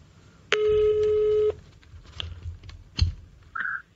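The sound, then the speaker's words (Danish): A single steady ringback tone sounds on an outgoing telephone call to a circus owner for about a second, followed by a couple of sharp clicks as the line is picked up and a brief electronic chirp. “I dag vil jeg ringe til cirkusmanden for at høre om hans erfaringer fra den privatøkonomiske manege.”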